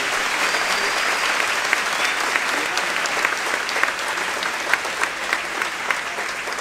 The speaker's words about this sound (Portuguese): Eu só quero que aplauda quem for gente, quem for anjo não precisa.